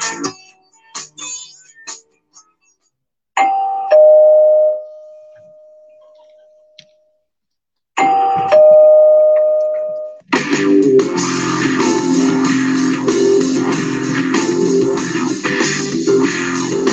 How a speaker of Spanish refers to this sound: Para mí que es un niño que escuchó la radio y lo único que hace es joder. Viene acá abajo, toca el timbre, se va corriendo.